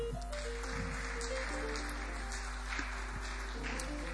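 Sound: audience clapping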